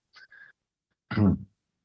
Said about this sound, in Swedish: Ursäkta, jag har varit förkyld förra veckan så jag hostar ibland.